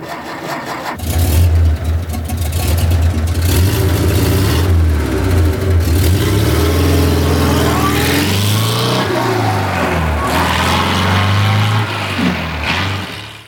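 A Porsche 356 sports car engine, the first Porsche model from 1948, cranks and fires up, then settles into a throaty idle with a few rising and falling revs, loud with no talking.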